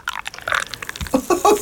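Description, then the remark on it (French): Sparkling water being poured: a fizzing hiss with gurgling, bubbly glugs whose pitch climbs as the glass fills, steady and fairly loud, with no talking. “Alors Bon, c'est c'est un de l'eau bruit de pétillante, bière, hein, hein.”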